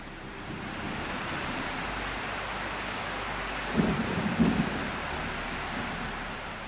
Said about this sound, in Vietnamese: cao nguyên trắng đón cả đoàn bằng cơn mưa nặng hạt sáng thứ bảy mưa vẫn không có dấu hiệu ngừng